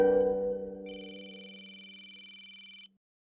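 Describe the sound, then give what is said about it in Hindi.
A phone ringback tone plays on an outgoing call made at 10 pm from abroad to the caller's family home in India: a low steady tone joined by a bright, rapidly pulsing high ring that continues evenly for about two seconds, then stops abruptly. No one speaks. “थोड़ी देर घंटी बजने के बाद मम्मी ने फोन उठाया”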